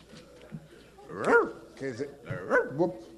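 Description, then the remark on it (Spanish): A person imitates a barking dog, giving four or five short, pitched woofs and yelps in an uneven rhythm, loud against a quiet background. “¿Dónde está el perro?”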